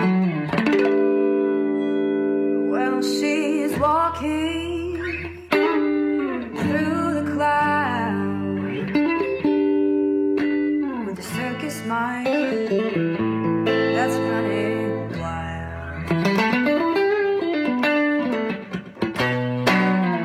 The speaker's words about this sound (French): Juste à la guitare, sans distorsion, un moment de grâce.